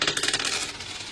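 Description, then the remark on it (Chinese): A quick cascade of small coins, two jiao in total, clinking and jingling as they spill out of a taped-up letter envelope from Dalian, bright metallic rattles tumbling over about a second before tapering off, with no voices. “两毛钱，我发达了！”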